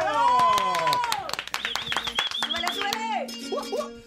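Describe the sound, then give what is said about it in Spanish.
Loud, dense applause lasting about four seconds, with rising and falling whistles and cheering voices mixed over the steady clapping. “Gracias a la mafia, el aplauso.”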